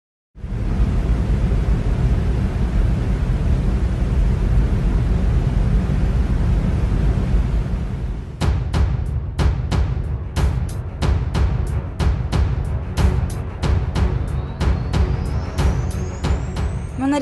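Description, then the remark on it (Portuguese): An electric fan runs with a steady, loud whooshing hum; about halfway through, a regular clicking or rattling starts beating over the airflow. No one speaks. “Se você está ciente e deseja continuar, permaneça na linha após o som do meu ventilador.”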